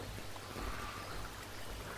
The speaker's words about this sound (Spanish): Estamos en un bosque. Un bosque verde. Un bosque vivo. un bosque que huele a tierra mojada. Aquí al lado tenemos un arroyo, un arroyo de agua cristalina.